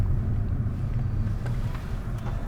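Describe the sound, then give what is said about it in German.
A car drives along a rough dirt field path running right beside railway tracks, heading toward a railway bridge: a steady low rumble of engine and road noise, with a few faint rattles and bumps scattered through it. “Über einen Feldweg direkt an den Bahngleisen entlang fahren wir mit dem Auto in Richtung Häckselplatz zur Eisenbahnbrücke.”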